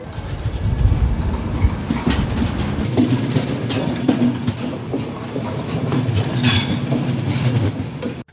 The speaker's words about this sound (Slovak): Ešte výpravca pozerá na posledných ľudí, ktorí prichádzajú. Zakýval si s rušňovodičom a vlak odchádza do Košic.